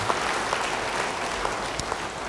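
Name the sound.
audience applause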